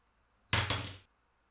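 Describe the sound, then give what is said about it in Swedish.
A die clatters across a table in a brief half-second burst of rapid, rattling taps, then falls silent. No voices are heard. “Du kan väl slå en tärning och se vilken effekt det har att blanda i sådana här droger.”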